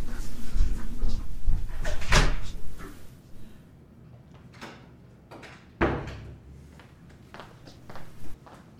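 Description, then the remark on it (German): Footsteps and shuffling as someone goes to answer the door, then two sharp knocks of a door, one opening and one closing a few seconds apart, with quieter movement in between and no talking. “Oh, Sekunde, ich muss mal ganz kurz an, an die Tür gehen.”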